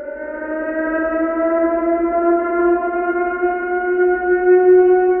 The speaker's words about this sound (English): If you don't live in San Francisco, what you just heard was a test of the city's emergency warning system that used to sound off every week.